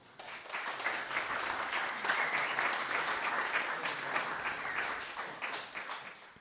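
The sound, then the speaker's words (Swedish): A crowd applauds for the children who helped out that day, a steady, dense patter of many hands clapping at an even level for several seconds before tapering off at the end. “Så kan vi inte ge en applåd till alla barnen som har hjälpt till idag?”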